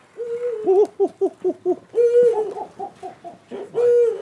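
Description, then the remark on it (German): A bird in the bird park at Walsrode, Lower Saxony, Germany, gives a loud hooting call mixing courtship and territorial behaviour: a long low note, then a rapid series of short pulsing hoots, followed by more drawn-out and stuttering hoots, with no talking. “Das ist so eine Mischung zwischen Balzverhalten und so ein bisschen Territorialverhalten.”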